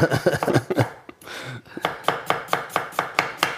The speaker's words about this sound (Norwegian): Nå har vi ferdig kutta rødkål.